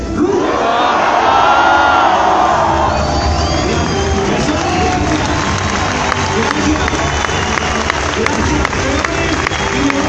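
A large crowd at an event in Bogotá lets out a loud, sustained collective roar imitating lions, swelling at the start and then settling into a dense wall of shouting and cheering that lasts throughout.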